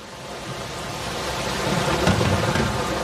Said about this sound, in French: Partout, l'océan et le bruit de la mer qui cogne sur la coque du Saturnia au rythme entêtant du vent qui souffle.